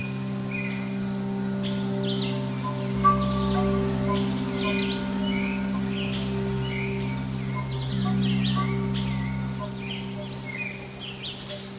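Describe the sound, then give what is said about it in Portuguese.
Scattered bird chirps and calls ring out over a steady hum of insects, with several birds singing intermittently in the forest canopy of a preserved area on the border of the Rio and São Paulo states, early morning in March, with wind moving the treetops. “Um local preservado na divisa dos estados do Rio e São Paulo, Aqui, os pássaros cantam tranquilos e o vento balança as copas das árvores que se espalham a perder de vista.”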